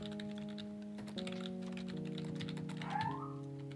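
Rapid, irregular clicking of keys on a computer keyboard as a message is typed to get someone online, fairly quiet, running steadily for a few seconds over a faint sustained background tone, with no one talking.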